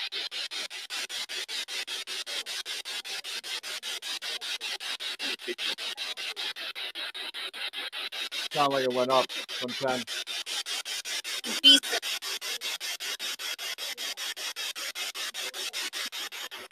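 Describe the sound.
Continuous choppy radio static from a spirit box sweeping rapidly through stations during a live paranormal session, pulsing in a fast, even rhythm, with brief snatches of voice breaking through near the middle and a short spoken remark.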